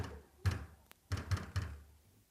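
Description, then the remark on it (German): Heavy, muffled bangs on a door, four loud thuds at an uneven pace with a small sharp click in between, with no voices. “Die wird bald aufhören, gegen Türen zu schlagen.”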